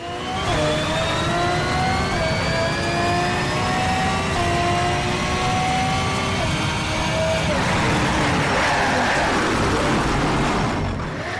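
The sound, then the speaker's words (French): A race car engine roars loudly and continuously, its whining pitch climbing steadily as it accelerates over several seconds, with a rough, jet-like rush building toward the end. “le moteur, en fait, c'est pas que c'est un moteur, c'est que t'as l'impression que c'est un réacteur”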